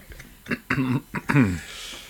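Someone clears their throat three times in quick succession, rough voiced rasps, with no talking around them.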